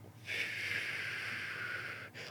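A long, steady inhale through the nose during a breathing exercise done with hands on hips, a broad airy hiss lasting about two seconds, tapering briefly before a second short intake of breath at the end.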